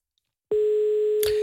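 After a moment of silence, a steady telephone ringing tone starts on an outgoing call to the Fintrafik road traffic centre in Tampere, Finland, one clear, even pitch held to the end, with a brief click partway through. No one speaks.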